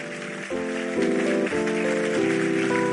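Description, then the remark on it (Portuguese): An audience applauds God during a sermon with a steady, dense patter of clapping, while sustained keyboard chords play underneath and shift every half second or so. “Aplauda Ele aí.”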